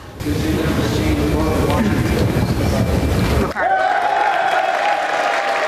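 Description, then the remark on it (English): A large crowd gives a standing ovation after a vote is cast, cheering and applauding loudly in a dense, continuous roar for several seconds, then the sound cuts abruptly to a thinner, quieter background with a steady tone. “I, I, wanted to play the moment there that you, you had your vote, uh, and each flip of a vote uh, in, had a standing ovation mostly uh, throughout the day.”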